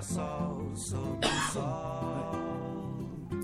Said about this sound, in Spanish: Perdón por la tos, que en serio estoy muy cascada de la voz.